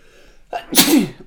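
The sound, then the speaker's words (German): A single loud sneeze during allergy season: a brief sharp intake followed by an explosive burst that fades within about a second, with no talking. “Jetzt muss ich Sonntag. hier auch noch schön niesen, ja, ne, Allergiezeit.”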